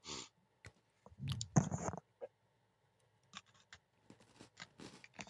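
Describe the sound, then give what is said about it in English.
Crunchy chewing of a golden Oreo cookie, with a loud burst of crisp bites early on, then softer, irregular munching noises scattered through the rest. “I would say my my initial impression and bite was very good.”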